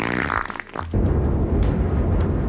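storm sound effect

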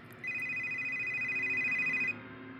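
telephone ringing

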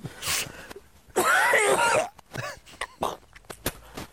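man coughing

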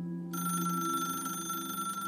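telephone bell ringing

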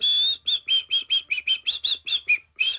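person whistling a tune

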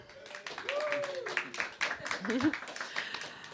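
audience applause

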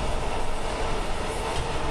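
train running on rails

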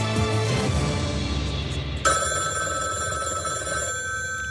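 telephone ringing

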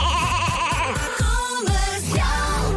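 sheep bleating

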